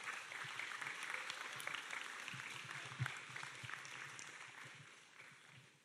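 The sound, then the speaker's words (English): An audience claps steadily for several seconds to welcome speakers, a dense patter of many hands that stays fairly even before tapering slightly near the end. “And so uh, I'm going to let's give a warm round of applause”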